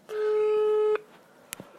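A steady electronic telephone busy tone sounds after a phone line to a live radio broadcast drops. It holds for about a second at a flat mid pitch, then cuts off, followed by a faint click and low background noise.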